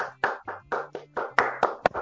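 Applause welcoming a guest singer-songwriter, steady, rhythmic hand claps, about ten sharp bursts over two seconds, moderately loud with no voices.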